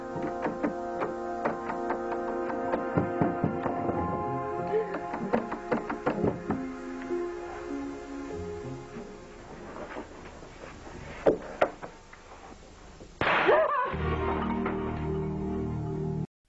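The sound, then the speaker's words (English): A doorknob rattles in a cottage in a series of sharp metallic clicks and jiggles over a sustained, eerie musical drone, followed by a louder, lower swell of sound near the end. “What you heard was a doorknob rattling.”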